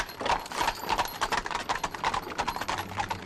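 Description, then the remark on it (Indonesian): Steady clip-clop of horse hooves pulling a cart, like a delman (horse-drawn carriage), heard from above on the roof tiles. A brisk even rhythm of sharp knocks, moderately loud, with no voices. “Tiba-tiba ada suara gerobak di atas mang ya. Ting teng. Kayak delman mang ya tapi di atas ini di atas genting ya”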